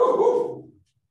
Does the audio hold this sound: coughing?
no